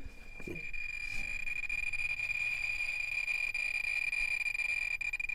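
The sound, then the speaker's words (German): A radiation counter held at a black lump of pitchblende, the main uranium ore, whistles continuously with a steady, piercing high tone, loud and unbroken throughout, over a dense crackling hiss. A brief low knock occurs near the start. “Das hört man ja dann, dann pfeift es volle Bulle.”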